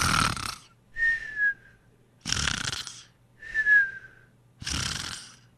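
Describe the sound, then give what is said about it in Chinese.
Steady, regular snoring given as an example of continuous, stable snoring: three harsh, raspy inhaled snores alternate with two thin, whistling exhales, keeping an even breathing rhythm throughout, with no talking. “那如果这个鼾声打呼噜是持续稳定的”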